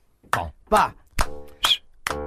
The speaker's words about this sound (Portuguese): Nosotros, tenemos que aplaudir. Nosotros tenemos que aplaudir. Aplaudimos. Aplaudimos.